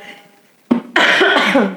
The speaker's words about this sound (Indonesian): Ntar ya gue batuk dulu bentar boleh gak? boleh bebas ini mah bebas.